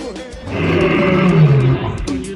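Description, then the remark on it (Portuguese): A loud lion roar swells and rumbles for about two seconds, deep and growling, then tapers off abruptly at the end. “Aí, é Leão!”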